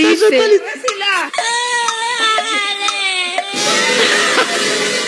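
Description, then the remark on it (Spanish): A young child cries loudly and continuously, wailing with rising and falling pitch, then the sound shifts into a noisier, breathier sob toward the end. “El niño llora.”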